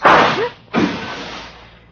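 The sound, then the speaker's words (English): Two sharp gunshot bangs, about three-quarters of a second apart, sounding thin and muffled as if heard over a telephone line, each trailing off in a short fading rumble. “Bullet's now delivered by phone. Thanks for the slug.”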